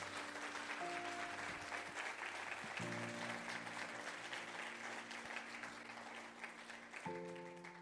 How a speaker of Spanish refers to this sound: Vamos a darle tu mejor aplauso al Señor.